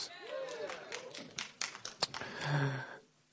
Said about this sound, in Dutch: Ja, daar mag je best voor klappen hoor. Ik vind dat niet erg.